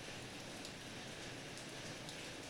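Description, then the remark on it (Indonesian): Steady morning rain falls continuously in Yogyakarta, a soft, even patter and hiss of drops on surfaces with no breaks or voices, fairly quiet and evenly spread throughout. “Beberapa hari lalu sama kayak hari ini, Jogja udah hujan pagi-pagi, sekitar jam 6.”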